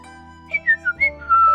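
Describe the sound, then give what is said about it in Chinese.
An oriole's leisurely whistling: five short, high, sliding notes in an easy lilting rhythm, heard over a steady, soft tonal drone with no talking. “小黄鹂悠哉悠哉地吹着口哨。”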